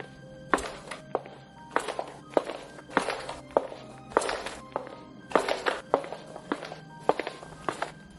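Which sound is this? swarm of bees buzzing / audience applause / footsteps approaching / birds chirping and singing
footsteps approaching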